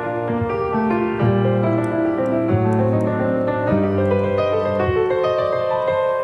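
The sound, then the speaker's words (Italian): A harpsichord plays a Bach partita, a Baroque piece with bright, dense chords moving steadily over a held pedal bass note, with a dissonant chord resolving to consonance, fairly loud, with no voices. “Le partite per clavicembalo”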